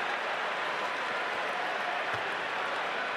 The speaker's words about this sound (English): Crowd trying to give him some encouragement. He hits the first.